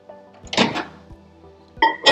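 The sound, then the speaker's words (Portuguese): A microwave oven door clunks and rattles, then a moment later a second burst of clattering and a short beep as the oven is set for 1 minute 30 seconds to heat dough, over a faint steady hum. “Massinha feita, micro-ondas, 1 minuto e 30.”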